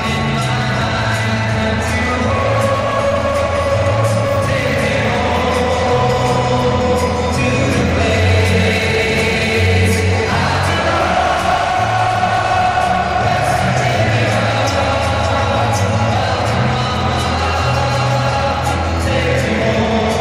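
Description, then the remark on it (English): A huge capacity crowd of German fans at Deutsche Bank Park in Frankfurt, Germany, sings a melody together in unison during an NFL football game, a loud, continuous, echoing roar of thousands of voices rising and falling with the tune for the whole stretch. “capacity crowd at Frankfurt's Deutsche Bank Park yesterday belting out … during a football game”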